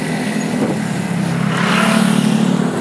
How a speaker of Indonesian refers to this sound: gue agak ngos-ngosan ngomongnya ada suara motor juga terus ada pokoknya ada suara lalu lintas lah ya dan kadang suara bel kayak gini ya